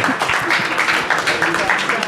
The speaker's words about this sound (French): Oui, pour notre ami, le candidat du peuple. Euh, notre ami Philippe Poutou. Ah, des applaudissements pour Philippe, Philippe.